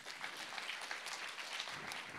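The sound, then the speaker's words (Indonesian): A church audience claps for God during a sermon: a dense wash of many overlapping hand claps with a bright, crackling texture, holding at an even level throughout with no voices on top. “Boleh tepuk tangan buat Tuhan.”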